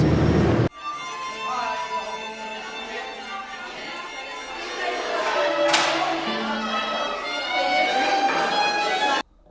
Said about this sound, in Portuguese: Ruído da escola já nos corredores, as pessoas levando suas cadeiras, se preparando para o ensaio da orquestra.